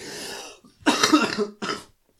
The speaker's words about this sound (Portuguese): É pá, isto gravar assim deitado dá é jeito. Puxa a tosse.